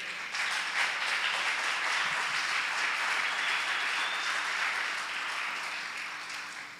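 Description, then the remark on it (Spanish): An audience applauds steadily for the King (God) after a prayer, a dense wash of many hands clapping at an even, loud level that holds throughout before easing slightly at the end. “Denle un aplauso al rey.”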